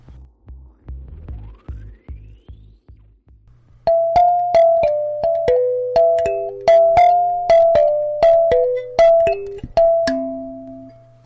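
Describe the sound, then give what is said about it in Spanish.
A brief electronic musical sting: low pulsing beats give way to a bright, bell-like melody of quick plucked notes over a steady bass drone, loud and upfront with no voices. “solo voy a dar una pista a motos de ráfaga musical para adentrarnos en lo siguiente.”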